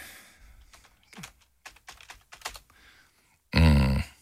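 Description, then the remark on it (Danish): Irregular clicking of someone typing on a computer keyboard, keys tapped in uneven bursts, followed at the end by a short, much louder burst of sound. “Hvad skriver du?”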